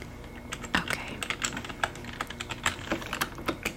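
Soft, steady computer keyboard typing during a resort check-in, a rapid run of light clicks and taps with an irregular rhythm, fairly quiet and with no voices.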